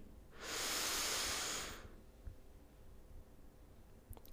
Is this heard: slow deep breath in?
yes